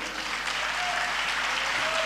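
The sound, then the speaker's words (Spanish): An audience claps steadily, a dense wash of many hands applauding at a constant level for the whole stretch, with no break and only a faint hint of voices underneath. “El Evangelio, aleluya, aplauda que vive.”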